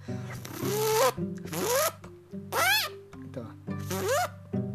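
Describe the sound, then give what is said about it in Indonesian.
A voice makes four quick beatbox zipper imitations with the mouth, like pulling a zipper, in a steady row, each a loud, raspy upward zip followed by a short pause. “naik lagi upgrade lagi ke suara zipper langsung ke zipper aja ya jadi zipper tuh suaranya kayak kayak gini kayak, kayak kalian narik resleting lah ya”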